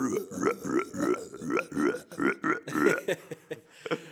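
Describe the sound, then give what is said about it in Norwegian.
A voice imitates a long, drawn-out burp, like a hippo captain character in a video game who burps when he talks: a rough croaking stream broken into repeated gurgling pulses for about four seconds, loud. “Så raper når han snakker? Ja, han sånn”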